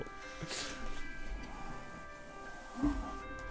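An alarm clock, the speaker's own alarm left set from the day before, plays a faint, steady electronic tune of sustained notes that carries on through the whole stretch, with soft background rustling and a brief bump of noise near the end.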